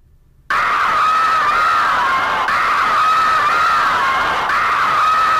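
A noisy electronic remix of a rock'n'roll song bursts in after a brief silence, a loud, dense wall of distorted sound with a shrieking, wavering tone running steadily throughout.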